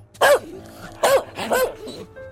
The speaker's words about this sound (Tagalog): Natigilan lang sila nang biglang umalulong at dinamba sila ng aso.